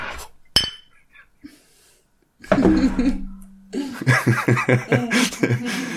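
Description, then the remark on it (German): A bottle of Astra Rotlicht beer clinks sharply once against a CRT monitor's glass in a toast, leaving a short bright ring, followed by a pause and then people chuckling and laughing. “ja, das ist der Vorteil, wenn man, äh, wenn der Monitor noch ein Röhrenbild äh, Monitor ist, der klirrt dann, wenn man dagegen.”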